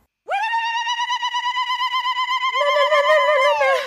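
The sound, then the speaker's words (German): A high, sustained warbling trill from a human voice, pulsing rapidly in an attempted zaghrouta ululation, held for several seconds. Partway through, a second, lower voice joins with its own trill before both trail off. “ja, das äh, sollte Saruta sein.”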